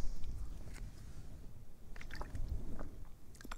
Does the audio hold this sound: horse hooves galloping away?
no